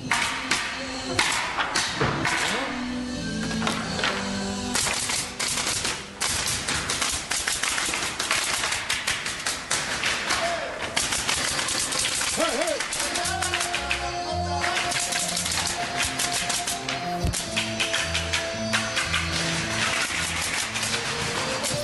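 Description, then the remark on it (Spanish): Carpenters pound nails with hammers in quick, irregular, overlapping blows, loud and busy against a dense clattering background, with tuneful tones joining in during the second half. “Hombre, están enclavando. Son carpinteros perros.”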